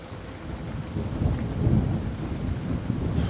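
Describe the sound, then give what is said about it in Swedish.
A thunderstorm recording, Luftrum's Rain and Rumble, set into a hip-hop new age mix, with a steady wash of heavy rain and deep, rolling thunder that swells around the middle and keeps rumbling on, with no voices. “ihopsatt med Luft, Luftrums Rain and Rumble.”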